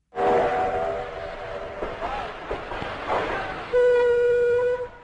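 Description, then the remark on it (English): A train rumbles along with steady, noisy clatter, opening and closing with loud, sustained whistle blasts that ring out over the rolling sound. “Wait a minute, this is a story about trains, but modern, high speed trains.”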